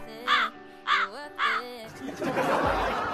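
A crow caws three times in a steady rhythm, each harsh, raspy call short and loud, followed by a rough, rushing wash of noise that fills the remainder.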